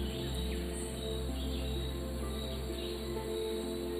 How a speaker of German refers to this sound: Stell dir jetzt vor, du bist an einem wunderbar entspannten Ort im Regenwald. Es ist noch früh am Morgen. Du atmest die frische und schon warme Luft ein und aus. Du hörst die Geräusche um dich herum. Vögel.